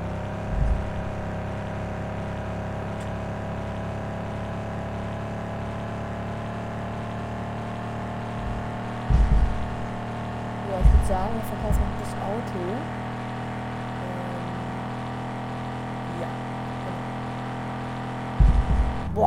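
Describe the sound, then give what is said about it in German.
A video game car engine drones steadily at a constant pitch throughout, loud, with a few brief thumps and bumps breaking through around the middle and at the end, as the car is driven home to be sold. “Das heißt, wir können jetzt ganz entspannt nach Hause fahren und das Auto verkaufen.”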